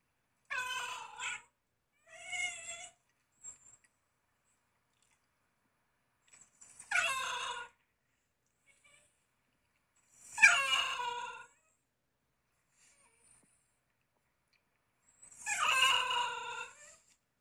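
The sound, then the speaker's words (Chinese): A Basenji dog yodels in five separate bursts, each a warbling, high-pitched, cat-like call rather than a bark, with silent gaps between them and no talking. “很好玩吧？这就是八仙级的叫声。”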